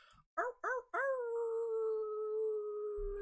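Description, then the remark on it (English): A single person imitates a wolf howl to end a gathering: two short rising yips followed by one long, sustained howl that slowly falls in pitch, loud, with no other talking. “So ending it off with a wolf howl and everybody else inviting you to add in your wolf howls.”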